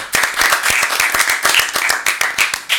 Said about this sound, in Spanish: Eh, vamos a darle un aplauso de nuevo al invitado